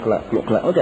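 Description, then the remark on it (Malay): A man's voice imitates water sloshing against a capsized boat, repeating a rhythmic "kelak-keluk" sound about four times in quick succession, clear, ending with a short spoken word. “kalau air gak bunyi keluk kelak keluk kelak keluk kelak air hok bertepuk di antara kalau kita kata perahu balik ni perahu balik tu bila air kucah tengah tu bunyi keluk”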